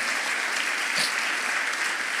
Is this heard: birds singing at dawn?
no